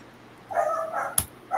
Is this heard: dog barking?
yes